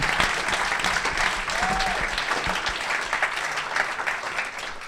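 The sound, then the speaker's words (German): Steady audience applause at a Christian gathering in Cologne, given for testimonies, fills the whole stretch, a dense wash of many hands clapping at even loudness, with a brief whistle-like tone rising above it partway through. “Können wir dafür please, einen Applaus yes. geben?”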